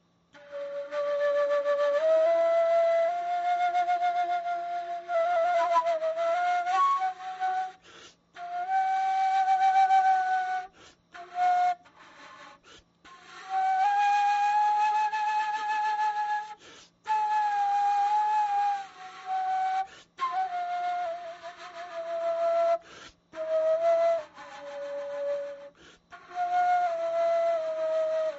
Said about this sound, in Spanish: este instrumento es el ney